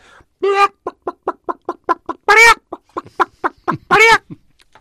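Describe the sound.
A person vocally imitates a hen, with a steady run of short, quick clucks broken by three louder, drawn-out squawks. The voice is loud, with nothing else in the background.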